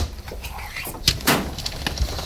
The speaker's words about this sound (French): Faites ça à longueur de journée vous allez voir. On devrait avoir une formation en fait pour comment tirer un, tiroir de cartec sans avoir mal au dos.